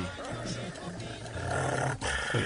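A dog growls low and rough almost without pause for a couple of seconds, fairly loud, its rumbling tone rising and falling slightly.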